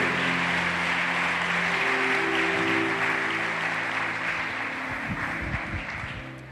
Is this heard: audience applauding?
yes